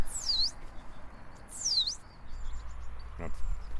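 A tit gives two thin, high-pitched swooping calls about a second apart, fairly clear above a low, steady background rumble.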